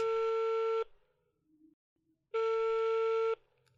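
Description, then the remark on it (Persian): A phone line ringing on the caller's end after an old man dials a number and holds the handset to a listener's ear: two long, buzzy electronic tones separated by a silent pause, clear as if heard through the handset, with no voices. “رفت سمت تلفن و یه شماره گرفت و گوشی گرفت گرفتم گوشش”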